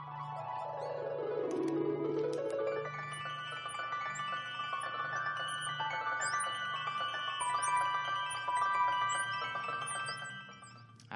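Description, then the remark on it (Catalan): Instrumental music composed for cats, the first of three fragments, with a steady low drone, opening on a swooping downward glide before layered sustained tones and high, chirping sounds take over, with no voices. “podem escoltar, Sergio, tres fragments d'aquesta música per gats”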